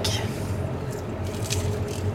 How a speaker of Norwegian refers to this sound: Um, og den veldig rare lyden du hører, er en mikrofon i en bil på vei.